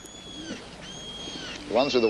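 Pigeons coo in low, throaty murmurs outside a London prison, a soft coo early on and a louder burst of cooing near the end, with faint high-pitched tones drifting in the background.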